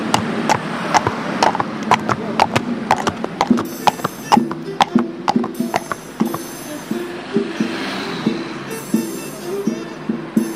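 A horse's hooves clip-clop in a steady, brisk rhythm on a hard surface, fairly loud, with a faint low hum underneath and no voices.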